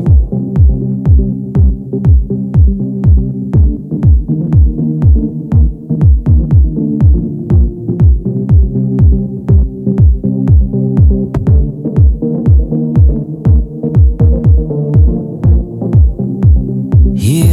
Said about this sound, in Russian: Леди и джентльмены, звучит еще одна работа от …, названная …. Давайте наслаждаться.